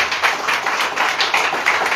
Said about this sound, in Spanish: Palmas a Jesucristo, hermano. Ve palmas a Jesús.